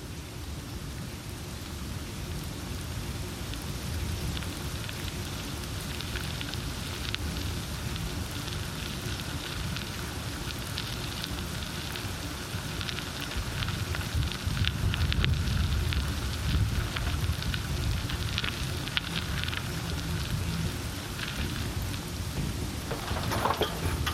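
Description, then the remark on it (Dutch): Steady heavy rain with a thunderstorm: a dense hiss of drops hitting surfaces and a deep low rumble underneath, swelling slightly louder midway through, with no voices. “bent goed nat geregend.”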